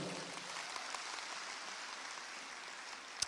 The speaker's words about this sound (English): Go ahead. That's a good place to clap. Let's clap for the Lord.